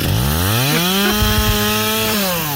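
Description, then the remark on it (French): A loud chainsaw revs steadily, its engine pitch rising and falling in deliberate steps so the buzzing whine traces out the theme tune of the radio show Manu dans le 6/10 on Énergie (NRJ). No one speaks. “Mais Patrick, il est content, il est avec sa tronçonneuse et il chante le générique de l'émission.”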